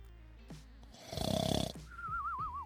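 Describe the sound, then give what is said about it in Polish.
A voice imitates its own snoring from the night before: one loud, rattling inhale, then a thin, wavering whistle as the breath goes out. Clear, with no other talking. “Chrapiesz?”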